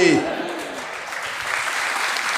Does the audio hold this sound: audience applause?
yes